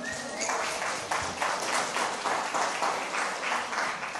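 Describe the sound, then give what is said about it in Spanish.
A church audience applauds together during a sermon, giving a round of applause to God: a steady wash of many hands clapping with a faintly pulsing rhythm, fairly loud and sustained throughout with no voices standing out. “Dale un aplauso a Dios, qué chévere, ¿no?”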